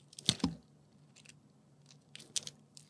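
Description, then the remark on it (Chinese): Shell being peeled off a century egg, with some crackle from the paper underneath: a few soft, crisp crackles and papery crunches in short scattered bursts, fairly quiet, with no voices. “哦，不，他在剥皮蛋。”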